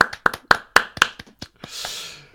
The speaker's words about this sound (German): Genau, ich finde, äh, dafür klatsche ich nochmal extra.